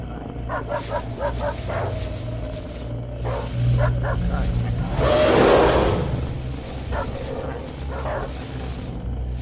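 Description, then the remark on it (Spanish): Several dogs growl and bark in repeated bursts, with yips mixed in and a steady low rumble underneath, plus a broad whooshing surge midway through. “De pronto, los perros comenzaron a gruñir y a ladrar muy inquietos hacia los árboles, y un gruñido de aquel lado de la maleza correspondió la amenaza.”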